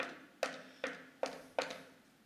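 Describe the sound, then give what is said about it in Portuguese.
Four evenly spaced knocks on a wooden door, firm, with a hollow resonant thud on each and short silent gaps between them. “se você abrir a porta, nós vamos encontrar.”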